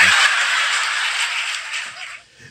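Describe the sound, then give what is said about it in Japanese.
A dense, continuous buzzing drone of cicadas in summer, on July 21, steady and loud with a slight shimmering pulse, fading a little toward the end, with no voices. “セミの声すげえな 鳴き声。”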